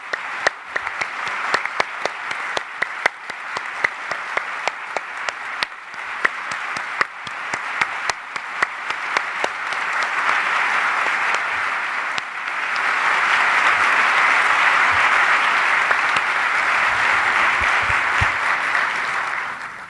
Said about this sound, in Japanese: ぜひ皆さんと一緒に万来の拍手を安倍総理にお願いを申し上げます。